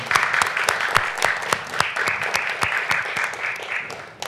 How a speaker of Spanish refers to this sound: Aplausos, por favor.